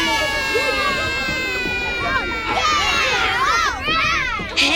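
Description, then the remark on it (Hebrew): A lively crowd of children chatters and shouts over one another, with excited high-pitched voices rising and falling amid a busy, scuffling commotion as they run while boarding a tour bus. “היי היי ילדים, לעלות לאט בלי לרוץ, לא חסר לי עוד ילד שיפול על הראש.”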